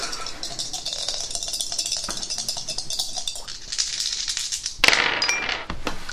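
Three dice rattle and clatter steadily for several seconds in a dense run of sharp clicks, ending with a louder burst of tumbling near the end. No one speaks.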